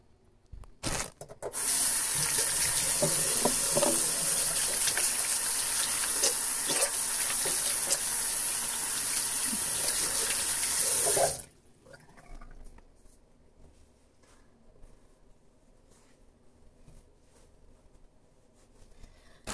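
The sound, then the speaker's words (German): In a bathroom, a tap runs with a steady, loud rush of water for about ten seconds while a person washes their hands, rubbing and splashing beneath it, then the water shuts off, leaving faint quiet. “Und jetzt wasche, und jetzt wasche ich entspannt mal meine Hände.”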